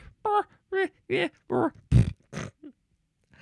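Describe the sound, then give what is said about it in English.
A person's voice tries to imitate a horse, making a run of about seven short, loud, grunting bursts in quick succession. “And, you know, my sound effect is not quite a horse sound.”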